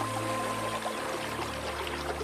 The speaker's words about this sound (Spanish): Los antiguos egipcios sabían cómo utilizar en sus campos cada gota de la valiosa lluvia monzónica. El agua fluía a través de un sistema de canales.